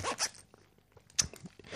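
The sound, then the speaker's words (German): A clothing zipper is pulled in a few quick, raspy strokes, with a short pause between the bursts and no one speaking. “Ich habe mich heute nur mit einem Reißverschluss angezogen.”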